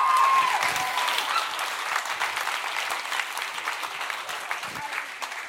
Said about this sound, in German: Ah, wunderbar. Applaus! Ausgezeichnet!